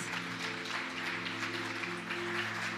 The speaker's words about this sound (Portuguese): Hoje é o dia do voluntário. Amém? Vamos dar uma salva de palmas para os voluntários?